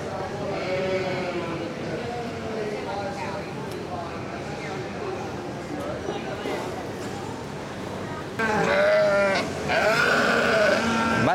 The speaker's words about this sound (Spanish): Así que vemos un montón de ovejitas y vamos a ver qué nos. qué más cosas nos vamos encontrando. Voy a callarme para que las escuchéis.